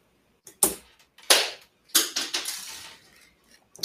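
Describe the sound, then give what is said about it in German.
A toy blaster's rotating cannon fires a plastic projectile that lands under a cupboard: a few sharp, bright snaps with a plastic clatter after each, spaced about a second apart, and a final rattle trailing off. No one speaks. “Ich feuer den jetzt ab und suche ihn später. Der ist unterm Schrank.”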